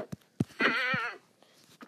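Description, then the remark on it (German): A single wavering goat bleat from a video game rises out of quiet, lasting about half a second with a shaky, trembling tone, framed by a few short soft thumps before and after. “Aber dafür wirst du bezahlen, du Ziege.”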